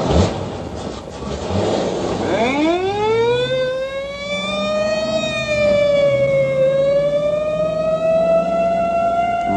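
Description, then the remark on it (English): A loud police car siren winds up from a rumbling start into a high, steady wail that wavers gently and holds to the end, with no voices present. “Or in a screaming squad car.”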